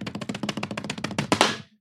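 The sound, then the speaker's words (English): Hands drum a quick, rolling pattern on a tabletop, slapped like tubs to introduce the next show segment, a dense run of soft thumps and taps that builds to a couple of louder hits before stopping. No voices. “But could you do a little bit of a tub slapping on the table to introduce oh, our next segment?”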